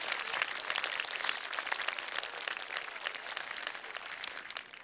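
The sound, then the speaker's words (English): An audience of students at Cedarville University applauds steadily, dense overlapping claps forming a continuous wash of sound that holds at an even level throughout, with no voices. “Would you just give yourselves and those around you an applause?”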